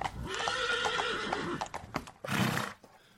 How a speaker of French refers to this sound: Le paladin murmura quelques mots à son cheval, et comme à l'accoutumée, ce dernier entama tout seul le chemin du retour vers le château orange.